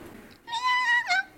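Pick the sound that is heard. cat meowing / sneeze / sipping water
cat meowing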